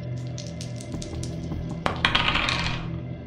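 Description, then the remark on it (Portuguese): A die clatters across a hard tabletop, with light taps at first and then a sharp impact followed by a quick burst of bouncing rattles that settles, with no talking. “Mas eu vou rolar um dado pra ver se eu escuto. Eu também vou rolar um dado aqui.”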